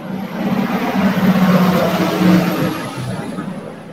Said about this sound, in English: That's a tour bus. They they, they just sped they just sped by the part where they should really slow down and let everybody get their pictures.